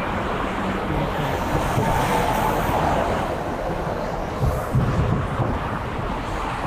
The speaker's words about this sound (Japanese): いやー、気持ちのいい海ですね。